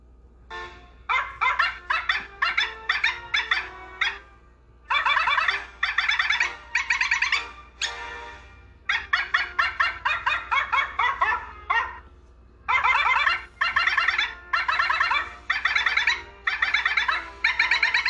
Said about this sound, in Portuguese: porque não existe nenhuma versão melhor do hino nacional do que um cachorro latindo o ritmo da música.